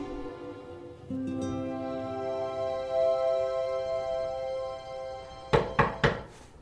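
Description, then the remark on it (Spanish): Soft sustained music plays, then drops away as three firm knocks on a door land in quick succession, loud against the sudden quiet. “Russell toca la puerta y la música se disipa por completo”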